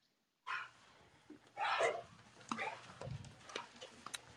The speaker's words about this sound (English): Oh, I'm sorry. My dogs were going crazy.